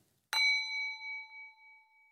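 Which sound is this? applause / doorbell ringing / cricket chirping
doorbell ringing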